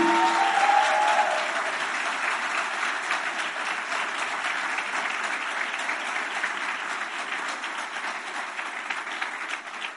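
An audience applauds steadily, a dense wash of clapping from many hands that holds at an even level throughout, with a brief tonal note at the start.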